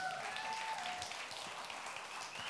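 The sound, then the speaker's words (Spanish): A church audience applauds steadily, a dense wash of many hands clapping at an even level for a few seconds, with a faint tonal whistle or ring briefly audible early on. “Un fuerte aplauso, café gratis por allá también.”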